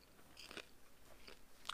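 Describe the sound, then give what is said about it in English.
Crisp crunching of popcorn being chewed, with a few sharp bites spaced irregularly over a quiet background, no talking. “Of just me crunching popcorn.”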